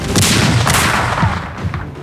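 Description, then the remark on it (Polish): Loud, rumbling bursts of an artillery salute repeat in quick succession, several blasts blurring into a continuous barrage with rolling low-end booms and no voices: 324 cannons firing 24 salvos on Red Square in Moscow after the taking of Kraków. “Na Placu Czerwonym w Moskwie 324 armaty oddały 24 salwy.”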